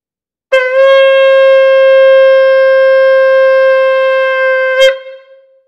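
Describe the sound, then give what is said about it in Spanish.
A single long, steady shofar tekiah blast sounds loud, holding one bright horn tone for about four seconds before ending with a brief upward break and fading away, blown as the first of a series of shofar calls during worship. “Eh, este es el tequía, el primer sonido que voy a hacer es el tequía y es para darle gloria a Dios o anunciar su majestad.”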